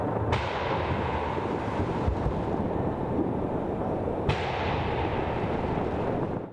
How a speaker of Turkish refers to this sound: Berlin'de ışık ve havai fişek gösterisi vardı ancak gösteri boş sokaklarda, caddelerde yankılandı.